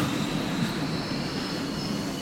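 vehicle, train arriving at station

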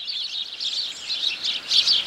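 bird, sparrows chirping in trees

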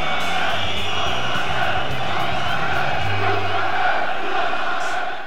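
crowd, football stadium crowd cheering

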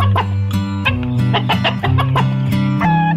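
animal, hens clucking

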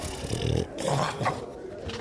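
animal, dog barking and growling

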